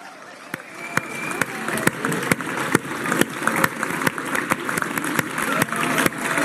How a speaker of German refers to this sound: Rein, die letzten Meter, unser Mega-Applaus. Christoph Strasser, Trans Austria 2023.